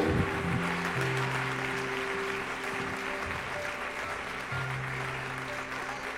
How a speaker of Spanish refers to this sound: den un aplauso a Dios que Él está vivo.